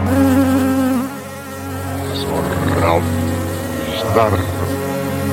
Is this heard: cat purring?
no